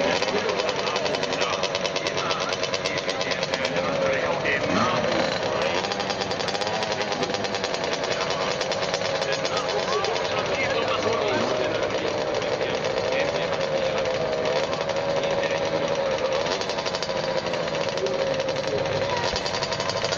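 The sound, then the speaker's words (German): Small 50cc KTM motocross bikes of the small junior class ride past during free practice, with a continuous, loud, raspy buzz of high-revving engines, the pitch rising and dipping as riders throttle up and ease off. “So, hier fahren jetzt die 50er, die Union A, die kleine Klasse. Auf KTM-Maschinen.”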